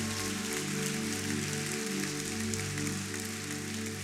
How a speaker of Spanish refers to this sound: Ahora sí, el que lo crea, denle un aplauso al Señor.